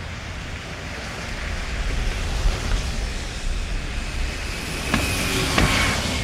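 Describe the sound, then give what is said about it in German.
A bus drives away, rumbling and whooshing with a low steady roar and some brief higher whines, the sound holding fairly constant rather than fading out. No one speaks. “Jetzt hast du den Bus verpasst.”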